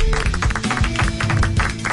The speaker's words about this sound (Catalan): Que maco que és un aplaudiment natural, eh?